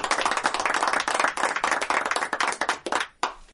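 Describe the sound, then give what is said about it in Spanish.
Applause for the guests of the radio programme El Mentidero on Radio Mira 90.5 FM: a dense rattle of claps from a small group that holds steady for a few seconds, then thins out and trails off near the end. “Así que, del parte del mentidero, un aplauso para nuestros queridos invitados y sigue usted”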